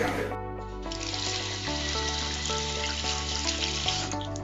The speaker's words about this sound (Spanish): Yo me cuido y lavo mis manos con frecuencia con agua y jabón.